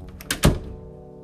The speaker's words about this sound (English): She slowly sh- went home and came to the door. She went in and slammed the door behind her.